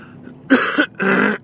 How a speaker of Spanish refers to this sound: Y vamos a ver si hoy la tos, que está ya bastante, bastante mejor, nos deja vivir. A mí, pero también a vosotros.